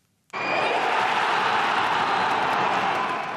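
A stadium crowd at Alfheim erupts in cheering after Hans Nordby's first Eliteserien goal for Tromsø, in a 3-0 football win over Stabæk, a sudden loud, dense roar that bursts in after a brief silence and holds steady without letting up.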